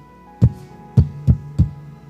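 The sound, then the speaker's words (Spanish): Four firm knocks on a wooden door, one followed by a quick pair and a final rap, resonant with no voices present. “Y Cristo está tocando.”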